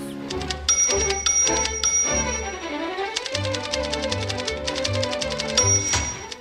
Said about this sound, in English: The typewriter scene from 1963's Who's Minding the Store is a good example.